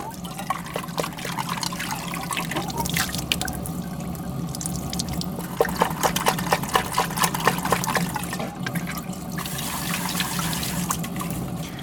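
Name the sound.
water running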